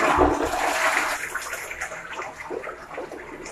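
household object, toilet flushing

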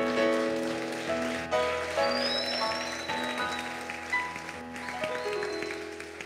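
crowd, audience applauding loudly

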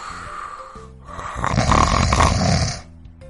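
human body sound, loud snoring

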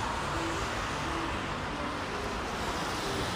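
vehicle, passing car traffic noise

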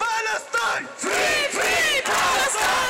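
crowd, protest crowd chanting

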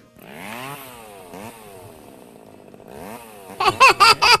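sound effect, lawn mower engine running

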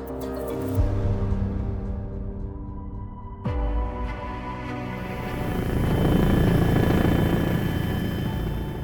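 vehicle, helicopter flying

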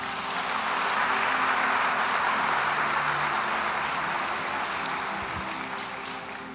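crowd, audience applauding

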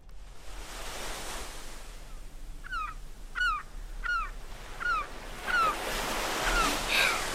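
nature, ocean waves

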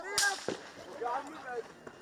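gunshots fired

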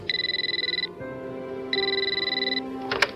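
household object, telephone ringing

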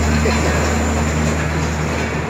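vehicle, truck driving past outside

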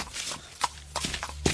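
animal, horse hooves clip-clopping

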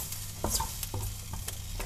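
food or drink, stir-frying food

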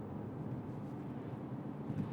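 vehicle, car engine running

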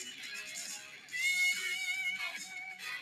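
vehicle, long train passing by

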